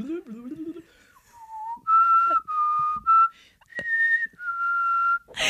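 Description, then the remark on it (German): A person whistles the X-Files theme, a slow, eerie melody of sustained tones, starting with a brief breathy lead-in, then clear held notes rising and falling. “Jetzt, ich versuche die Akte X-Musik zu pfeifen.”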